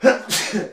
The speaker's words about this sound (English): bless you.